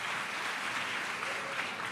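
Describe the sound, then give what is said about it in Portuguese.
An audience applauds the Lord, a steady wash of many hands clapping with a dense, hissy texture that stays even and sustained throughout, with no voices standing out. “Pode aplaudir o Senhor, porque tem uma mensagem já nisso que a gente fez.”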